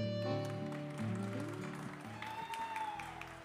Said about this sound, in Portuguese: Aí, muito bem. Mais aplauso.